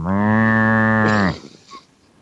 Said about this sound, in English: Africa's got the rain stick, and we've got the cow thing that you tip over and it